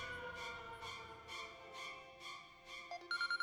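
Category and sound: household object, telephone ringing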